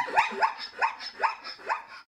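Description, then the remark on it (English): A zebra calling: five sharp, yelping barks in a quick, even rhythm, each rising slightly in pitch, with no other sounds or voices. “Zebras make a lot of surprising sounds.”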